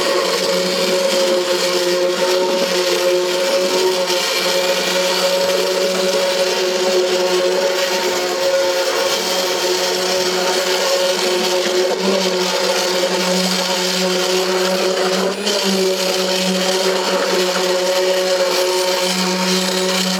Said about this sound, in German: Nein, das ist Nein, das ist kein Auto, das ist ein Mixer. Mixer!